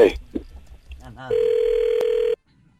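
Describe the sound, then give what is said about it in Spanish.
A telephone line rings as a call is being dialed: one steady, mid-pitched ringback tone lasting about a second, loud and unbroken except for a tiny click, following a few brief murmured voices. “ahí estamos marcando, no haga ruido, ¿eh?”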